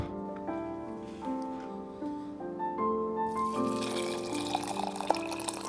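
Hot water pours steadily into a tea cup to make oolong tea, its ringing tone climbing in pitch as the cup fills, then turning into a louder, splashy gush near the end. Clear, with no talking.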